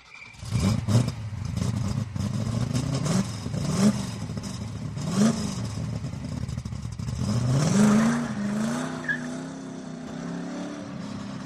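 A car engine revs hard again and again, its pitch climbing and dropping in quick bursts before a longer, louder acceleration, with a steady mechanical roar and no voices.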